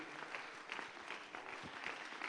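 An audience gives the Lord a hand clap of thanksgiving for the Bible, clapping together in a steady, dense burst of applause, many overlapping hand claps forming a continuous crackling wash of sound at moderate loudness, with no voices clearly standing out.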